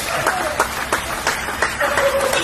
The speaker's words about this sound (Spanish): Los aplausos a nuestros médicos,